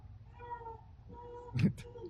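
A pet cat meows in drawn-out, tonal cries, with a short, louder, more strained yowl near the end. It is clear, with no voices.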